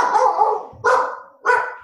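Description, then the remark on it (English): A dog barks three times, loud, sharp woofs, the first one drawn out and the next two short and evenly spaced, with no talking. “That's a dog.”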